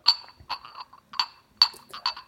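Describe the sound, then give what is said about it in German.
Several sharp clinks of glass objects ring out in an irregular sequence, each a bright, resonant tap with a short decay, fairly loud, with no talking. “Ähm, ich, wenn ich darüber lecken würde, würde ich sagen Glas. Ja, das ist Glas.”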